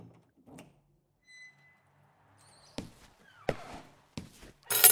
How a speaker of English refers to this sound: hello? Are you there? Okay, I'm opening the door.